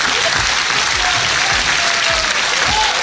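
Steady applause from a group, a dense wash of clapping that holds an even loudness for about three seconds, with faint voices murmuring underneath.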